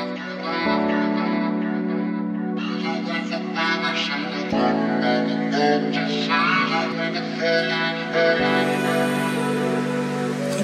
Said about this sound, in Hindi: एक गाना सुने this one is one of my favourites again